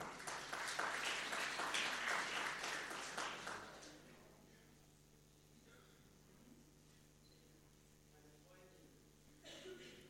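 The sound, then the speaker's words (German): A church audience at a service in the Evangeliumshaus in Krefeld applauds its guests with dense, crackling claps for about four seconds, then the clapping fades out, leaving a quiet hum with a brief rustle near the end. “Ein Applaus für unsere Gäste.”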